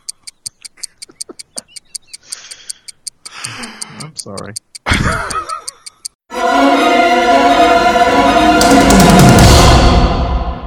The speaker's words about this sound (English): But what's the ticking that I can hear, Mike? Thank fuck it's the doom clock.